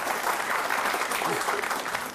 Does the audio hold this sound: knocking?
no